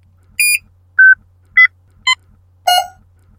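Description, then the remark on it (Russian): Five short electronic phone notification chimes from five messenger apps in quick succession, each a different pitch and timbre, clear over a faint low hum, with no talking. “Телефон ежеминутно подпрыгивал от уведомлений из всех пяти мессенджеров.”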